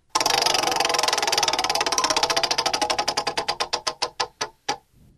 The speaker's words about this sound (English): Spin the wheel. Make a deal. It's a game of chance. Let's play. Caller roulette